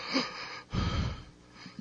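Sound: heavy breathing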